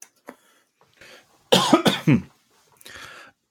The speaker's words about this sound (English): That that is yeah, it's very funkadelic cough of yours.